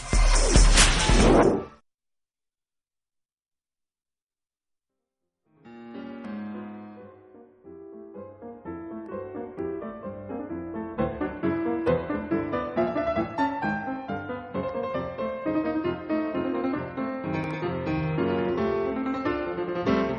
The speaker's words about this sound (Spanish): Este, vamos a hacer un breve puente musical si me permiten y regresaremos.